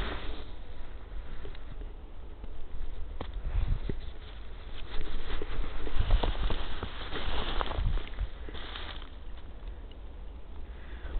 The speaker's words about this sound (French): On entend bien le petit euh, clic clic clic. C'est délicat que ça fait contre les feuilles. Alors là en fait c'est de la neige toujours qui tombe sur les feuilles des hêtres